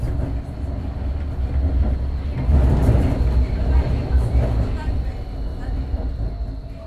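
Inside a moving line 20 city tram: a steady, loud low rumble of wheels on rails with a thin high whine running throughout, swelling slightly midway as the car rolls on.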